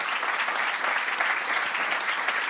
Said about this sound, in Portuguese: Pá, por favor, uma grande salva palmas à Manuscrito, porque sem eles isto não acontecia.